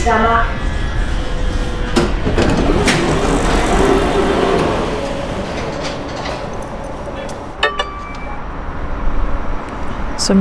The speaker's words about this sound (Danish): nok lige kunne høre, så har jeg taget metroen ud til det sidste stop i den her retning, som er Vestamager.